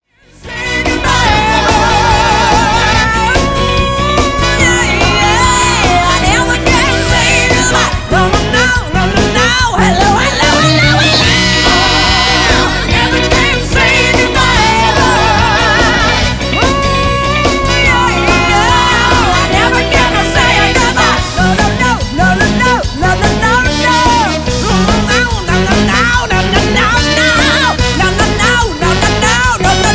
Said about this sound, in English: she just knocks that song out of the park oh my god oh my god you got to take a listen to this you're gonna love this take a listen